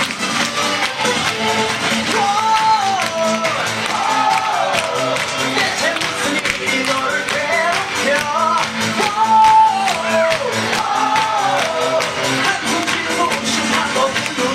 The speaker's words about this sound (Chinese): 来起立，全体站在凳子上，站在凳子上，掌声欢呼声献给